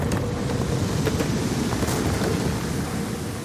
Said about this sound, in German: Der Wind wird stärker, das Wasser tiefer.